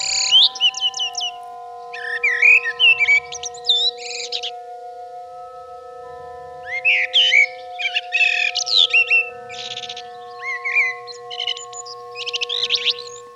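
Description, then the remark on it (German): A blackbird sings loudly in bursts of rapid, varied chirps, trills and whistles, pausing briefly between phrases, with a steady low hum in the background. “Und ihr Gesang ist laut und irgendwie besonders.”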